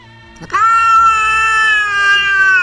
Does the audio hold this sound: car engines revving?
no